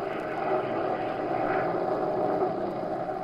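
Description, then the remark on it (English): A small propeller plane drones steadily and loudly in awful weather, rocking and rolling in midair, its engine roar filling the whole stretch without a break, with a rough, buffeting texture to the sound. “The little plane rocked, rolled, and practically stood still in midair.”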